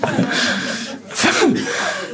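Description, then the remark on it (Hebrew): A person mimics loud snoring with harsh, noisy breaths, two rough snorting bursts, the second one louder and drawn out, imitating the passenger in the next seat snoring on a flight. “פתאום זה שלידי, הוא פשוט מאוד לא, לא נוחר, מה נוחר?”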